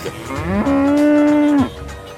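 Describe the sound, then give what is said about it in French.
A single loud cow moo in Bombay, India, rising in pitch and then holding a long steady tone before cutting off, with faint background noise around it. “Euh, madame la vache, euh, pourriez-vous avoir la gentillesse de rouler moins vite avec votre tuk-tuk”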